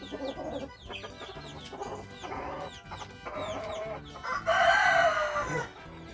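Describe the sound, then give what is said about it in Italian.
Several chickens, including Araucana hens that lay blue eggs, cluck steadily amid busy chirping, then a rooster lets out a loud crow near the end, rising over the flock before fading. “Qua abbiamo la gallina araucana, che è quella delle uova azzurre.”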